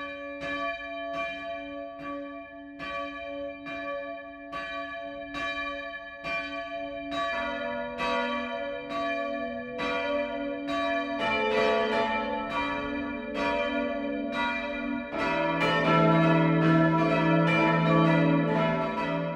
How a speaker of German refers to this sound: Das Mittagsläuten kommt heute aus dem Dorf Heustreu im unterfränkischen Landkreis Rhön-Grabfeld.